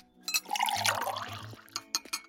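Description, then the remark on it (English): Water pours steadily into a vessel for about a second while making tea, the pitch rising as it fills, followed by a few light clinks and taps. Fairly quiet, with no talking. “Fancy a cuppa? Right, let's pop the kettle on.”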